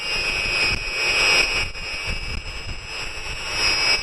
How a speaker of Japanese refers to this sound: この電流の音がしてきている変電所のような場所があります。ちょっと電流の音を聞いてみます。逆変所というらしいです。してきました。もうちょっとこの真下の方で音を聞いてみます。太陽光発電の音です。